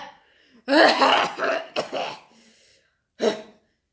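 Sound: coughing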